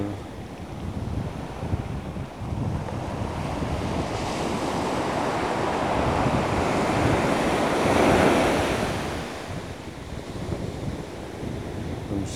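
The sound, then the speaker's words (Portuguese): Ocean waves wash onto a beach in a steady, full roar, swelling to a louder crashing surge midway before easing back, with some wind rumble and no voices. “Vamos respirar e sentir como as ondas do mar”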